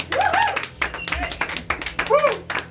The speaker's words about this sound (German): Meine Freunde, meine Freunde, das war's, das Finale. Ein Applaus, ihr wart großartig!